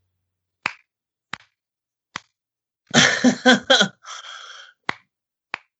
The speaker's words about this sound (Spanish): escucho, escucho aplausos, eh, escucho aplausos. está matando moscas, eh,